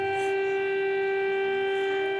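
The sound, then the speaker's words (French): A steady, sustained emergency air raid siren wails at a constant pitch in Kyiv, Ukraine, at the start of a Russian offensive, loud and continuous with rich harmonics, sounding across the city with faint background ambience. “À Kiev, la capitale, et dans les grandes villes, les sirènes d'urgence.”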